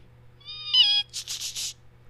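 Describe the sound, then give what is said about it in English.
A person imitates the cry of a large bird said to appear at night: a rising whistled tone with harmonic overtones, then three breathy, hissing bursts in quick succession, fairly loud over a low steady hum. “According to one, it appeared at night, making a sound like.”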